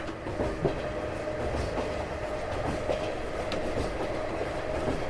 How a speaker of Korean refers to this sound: 우리 열차는 잠시 후 영월역에 도착합니다. 소지품을 두고 내리지 않도록 미리 준비하시기 바랍니다.